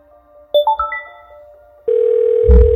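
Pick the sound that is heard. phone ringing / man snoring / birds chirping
phone ringing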